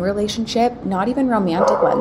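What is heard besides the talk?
dogs barking in background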